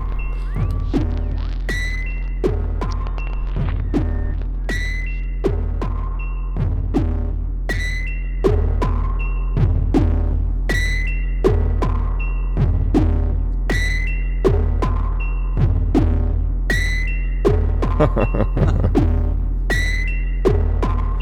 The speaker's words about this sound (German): Also der Defam ist schon eine geile Groovebox.